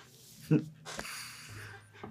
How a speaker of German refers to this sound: Husten erwischt.